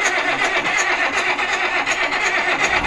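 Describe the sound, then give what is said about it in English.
A John Deere tractor engine cranks over and over without catching, a loud, steady run of rhythmic grinding churns, with no one speaking. “Just think, if you're behind the wheel of your car, oh, this is a tractor, obviously, but if your car is doing this, come on.”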